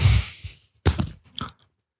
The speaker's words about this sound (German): du darfst nicht äh, essen oder schmatzen während der Folge. Wir haben viele Kritik bekommen, dass dass wir es nicht machen dürfen.